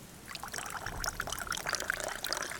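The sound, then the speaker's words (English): Water pours steadily from water skins into bowls of black tea, a continuous splashing trickle with bright little droplet sounds throughout, fairly quiet and with no voices. “snatches up the water skins and add the, adds their contents to the bowls of black tea.”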